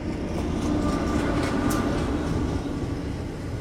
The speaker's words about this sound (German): Ja, und äh, auf einmal fuhr dann auf der Eisenbahnbrücke ein Zug vorbei, den man gerade besprüht hatte, in, in, der Nacht vorher, ja, und mit, mit seinen Namen.